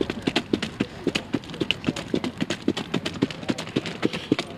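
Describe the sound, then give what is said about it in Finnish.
Brisk clip-clop of a horse trotting rhythmically while pulling a sulky cart, hoofbeats falling in a steady, quick rhythm over a low rolling rumble, with no voices. “No, ry- rytmikestä juoksua ja sehän on hauskaa, että tässä kärryllähän tuntuu ja sa- tuntee samalla tavalla kuin silloin kun ratsastaa hevosta, niin se hevosen liike.”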